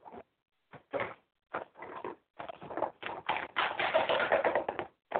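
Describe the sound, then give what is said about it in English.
Someone fiddles with a container, making irregular tapping and rattling knocks in short bursts that grow into a denser, louder, continuous clatter toward the end. No one speaks. “I'm playing with a container.”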